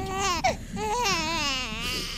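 A newborn baby wails at night, one sustained, strained cry with a brief catch of breath partway through before it rises and wavers again, loud and unbroken, with no talking.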